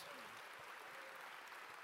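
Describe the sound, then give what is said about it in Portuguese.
A church audience claps for new converts, a dense, even wash of many hands with no breaks, fairly loud and sustained across the whole moment, with a faint murmur of voices underneath. “Vamos dar eh, uma salva de palmas para esses novos convertidos.”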